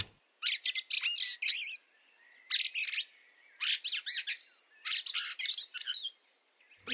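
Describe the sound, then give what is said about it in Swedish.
A fieldfare sings in four squeaky, chattering bursts with brief pauses between them, high-pitched, alone against a quiet background with no voices. “Och där är björktrasten väldigt bra på det.”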